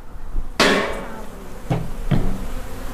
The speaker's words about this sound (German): öffnet gerade einen Kasten und da oben sind jetzt ganz viele Leisten, auf denen sich tausend Bienen tummeln.